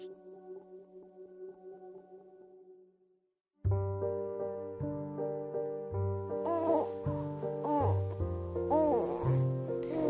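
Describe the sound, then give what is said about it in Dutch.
A baby boy in a bouncer chair makes soft gurgling, cooing sounds, with short rising and falling vocal glides over a steady humming tonal background. Quiet at first, then fuller and louder. “Zachte pruttelgeluidjes uit de wipstoel van Lolita's zoontje komen me tegemoet.”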